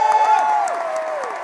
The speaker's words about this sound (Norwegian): Folkens, da skal vi ta imot vår programleder med en enorm applaus. Harald Eia!